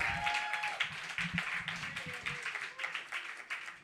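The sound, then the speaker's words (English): An audience applauds all 12 readers at a reading steadily, with dense overlapping claps forming a bright, crackling wash that lasts the whole moment, while a few voices and cheers rise faintly beneath it. “Um, let's give one more round of applause for all 12 of our readers who were indeed fantastic.”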